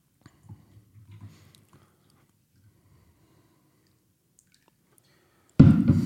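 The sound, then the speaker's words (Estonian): Liu Bao tea, from a pressed tea disc, is poured into a cup with a sudden, loud, steady splashing rush near the end, after a stretch of quiet, faint handling sounds and soft low rustles. “siin saab natuke teed juurde”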